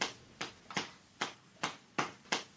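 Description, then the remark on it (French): A series of about seven soft, fleshy slaps of hips knocking together during sex, coming in a loose, uneven rhythm, fairly quiet, with no voices. “C'est le bruit des peaux qui se frottent, des bassins qui s'entrechoquent”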